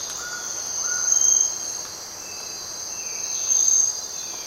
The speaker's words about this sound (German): Sie hören morgens in einem tropischen Regenwald die Stimmen des Waldes. Das sind in erster Linie Vögel und Amphibien, zum Teil auch mal Zikaden.